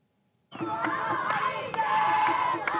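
A crowd of children in Deir ez-Zor, eastern Syria, cheering and shouting as they run toward soldiers arriving in jeeps after three years of IS rule, recorded by a Russian TV crew: a loud, sustained jumble of high-pitched voices that begins abruptly and continues steadily with occasional sharper yells.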